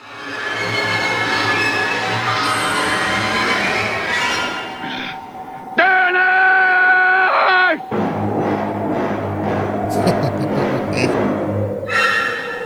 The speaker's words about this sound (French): Et là, Gordon Stanford a utilisé une autre pièce de Penderecki qui a arrangé pour que les percussions fortes suivent le fameux cri de Jack quand il arrive aux dernières traces laissées par son fils.